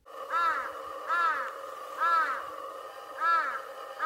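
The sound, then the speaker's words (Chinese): Four loud, raspy large-billed crow caws repeat at a steady pace, each a harsh, slightly downward-sliding "aah" with rich buzzy overtones, separated by brief pauses; no voices are heard. “这个呢是巨嘴鸭的叫声。”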